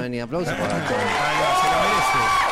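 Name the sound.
studio applause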